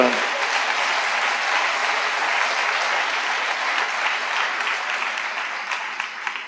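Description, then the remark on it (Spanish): Sustained applause from a crowd, given to the Lord, a steady dense wash of clapping that holds at an even, fairly loud level for several seconds before easing slightly at the end. “De un aplauso al Señor.”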